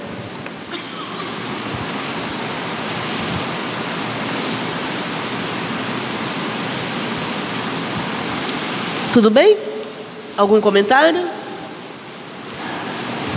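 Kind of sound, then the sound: nature, rain falling outside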